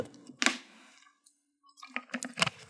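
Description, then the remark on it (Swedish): Quiet sounds of someone taking a sip of water: a few sharp clicks and small mouth and swallowing noises with a short silent pause in between, no talking. “Jag tar en klunk vatten också.”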